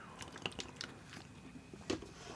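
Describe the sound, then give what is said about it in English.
Quiet mouth sounds of someone sipping water: a scattered run of soft wet clicks and small slurps over about two seconds, with a slightly stronger gulp near the end and no talking. “As I continuously sip water around my internet teeth.”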